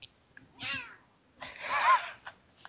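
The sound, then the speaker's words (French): A female cat, being shaken, grumbles in two drawn-out, complaining calls rather than proper meows, the second longer and louder, with brief quiet between and no voices. “Elle miaule pas, elle. Euh, elle, euh, elle, elle râle.”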